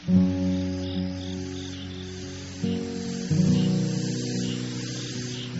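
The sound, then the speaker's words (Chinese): A continuous, buzzing drone of cicadas chirping on a summer night, steady and layered, swelling louder in two steps partway through over a constant airy hiss. “闭上眼睛，回想那一季的蝉鸣，此起彼伏，响彻夜空。”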